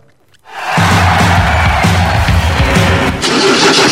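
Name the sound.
diesel engine starting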